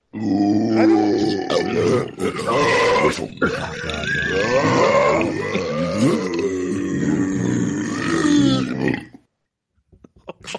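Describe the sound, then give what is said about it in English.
A dense, continuous wall of one person's recorded burps all played at the same time, many belches layered into one loud, rumbling, croaking mass that rolls on for about nine seconds before cutting off abruptly. “Was that every one of my burps played at the same time?”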